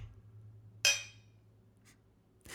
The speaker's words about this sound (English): That was a candle and a coffee mug, just so everyone knows.